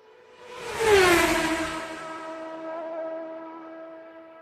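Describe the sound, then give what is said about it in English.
A Formula One car screams past, its high-pitched engine whine rising to a loud peak then dropping in pitch, leaving a steady droning hum that slowly fades. “It's the sound of Formula One, the most glamorous, famous, and arguably toughest of all motorsports.”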